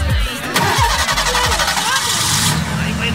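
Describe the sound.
A car engine cranks with rapid low chugging bursts, then catches and runs with a steady rumble, loud, while a voice talks over it.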